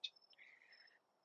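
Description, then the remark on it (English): Faint, steady high-pitched chirring of crickets outdoors at night, around 8:30 pm, with a short sharper chirp at the start and a soft hum of other insects in the background; no one speaks. “Everything's dead where we're at, and I can hear the crickets chirping in the background for you, and I, would just love to hear that right now.”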